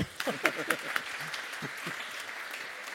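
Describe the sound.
An audience in the Friedenskirche church applauds a couple married 55 years. A dense, steady patter of clapping lasts the whole three seconds, while a few brief voices call out over it near the start.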